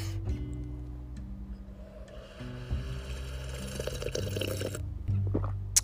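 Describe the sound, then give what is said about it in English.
Sipping and slurping of a hot cup of coffee, a few wet, airy pulls from a cup over a steady low mechanical hum, with no one talking. “I love being able to sit here and drink my delicious, delectable cup of coffee”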